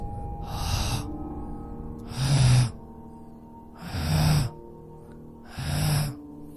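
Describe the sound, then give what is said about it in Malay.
Heavy, drawn-out breaths repeat four times at a slow, steady pace, each a loud airy rush that fades before the next, with no talking and only quiet between them; long breathing heard behind someone sitting in a bathroom. “Masa ni lah meremang bulu tengkuk saya macam ada benda tengah menarik nafas menghela panjang kat belakang saya”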